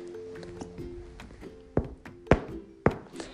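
Three dull, close thunks of a book tapping on someone's head, evenly spaced about half a second apart, following a quieter stretch of faint background tones.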